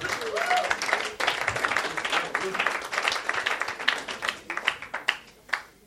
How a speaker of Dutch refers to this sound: Laten we het even aanmoedigen met een applaus.